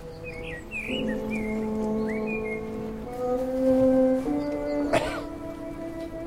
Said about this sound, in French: Le chant des oiseaux nous a accompagnés pendant toute notre manifestation.